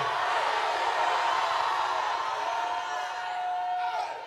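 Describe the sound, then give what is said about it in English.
A church audience shouts hallelujah together in a loud, dense wash of overlapping voices that holds steady for several seconds, with a thin sustained tone ringing faintly through the crowd noise. “Grab someone with faith in your heart. Shout hallelujah.”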